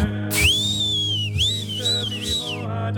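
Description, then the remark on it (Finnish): Shrill, sustained whistling from the crowd at the Raksila ice arena, aimed at the opposing team coming onto the ice, rings out for several seconds, its pitch swooping and wavering with brief breaks, over a steady low background rumble of the large arena. “Mietin ennen Raksilassa vihellettiin ihan kunnolla vastusta.”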